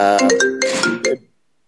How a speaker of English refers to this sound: Your phone's blowing up too.